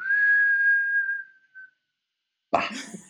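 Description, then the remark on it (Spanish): A person whistles a long, steady tone that sags slightly at the end, imitating a small bag being dropped from a height, then a pause and a sudden breathy burst. “Marica, yo dejé caer la maleta y la maleta como”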